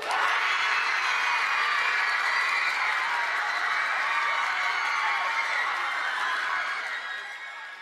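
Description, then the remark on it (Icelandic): A large group of Hagaskóli students cheers and screams as their school is announced the 2023 winner, in a loud, sustained roar with high-pitched shrieks and scattered whoops, holding steady for several seconds before easing slightly at the end. “Það var líka alveg frekar auðlust að við vorum öll í sjokki og því að við byrjum svo seint að öskra.”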